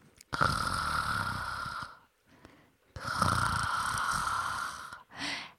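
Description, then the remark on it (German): A small seal pup sleeps peacefully in the farthest corner of a gorge, giving two long, soft snores with a rasping, breathy texture, separated by a brief quiet inhale, followed by the start of a third; steady, with no talking. “Ganz hinten, im letzten Winkel einer Schlucht, schlief friedlich das kleine Robbenbaby Ida.”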